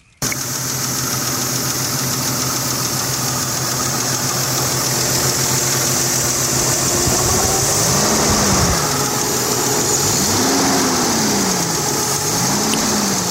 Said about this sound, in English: Tuesday I developed a lifter tick. Oh no! Yeah, and this is on the uh, rebuilt engine uh, that has got maybe 24 to 29,000 miles on it. So uh, I'm sure everybody is familiar with the lifter tick noise, but just in case you're not, here it is.